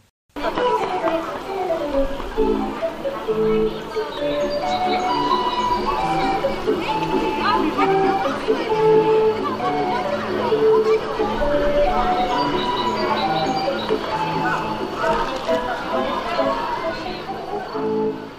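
A barrel organ plays a bright, steady melody, with reedy sustained notes and a busy accompaniment running continuously for about eighteen seconds before stopping abruptly.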